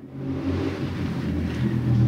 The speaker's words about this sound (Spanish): Esperen que están pasando en la moto. Vamos a hacer este capítulo Fit, la bulla de Quito.